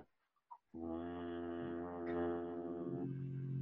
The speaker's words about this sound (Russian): Вот, начинается более глубоким дыхание становиться. И на очередном выдохе ты его просто мягко озвучиваешь. Это происходит так